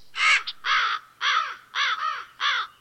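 A crow caws repeatedly, about five harsh, raspy calls in a steady rhythm, clear with no other sounds around.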